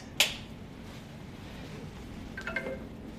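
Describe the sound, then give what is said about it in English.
A cellular module being turned on and connecting to the cellular network: a sharp click, a stretch of low background hum, then a quick cluster of faint electronic chirps and buzzy beeps near the end. No one speaks. “So that, that's the sound of a phone going on and it's connecting to the phone.”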